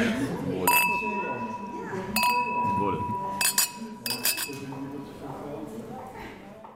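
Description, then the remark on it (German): Glasses of Rivaner white wine clink together in a toast in sunny weather at a Dutch winery in Zeeland, the Netherlands, several bright ringing chinks with a lingering tone, while people chat in the background. “So, Prost.”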